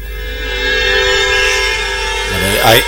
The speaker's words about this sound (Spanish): Ahí, ahí, mezclamos esas campanas con la música eh, original de A las Puertas de Magonia, la música que identifica el programa